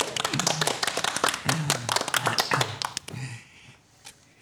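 A short burst of applause from a small group in a studio, welcoming a senior lecturer of the TalTech Institute of Chemistry and Biotechnology as guest: dense overlapping hand claps for about three seconds before quickly fading out to a few scattered claps.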